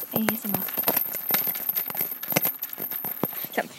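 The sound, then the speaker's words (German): Metal chains on a chicken coop rattling and clinking in quick, irregular bursts of sharp jangling taps, moderately loud throughout, with a brief low murmur near the start. “Ja, das waren die Ketten von unserem Hühnerstein.”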